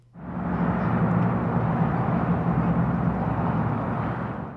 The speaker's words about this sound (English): So that was the Santa Cruz River in Tucson, Arizona.